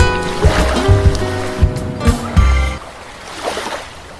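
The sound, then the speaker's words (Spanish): Ocean waves breaking at the end of summer, at first tangled with a low, droning rumble, then settling into a softer, steady wash of surf. No one speaks. “Estas olas que suenan de fondo son probablemente de las últimas olas de este verano”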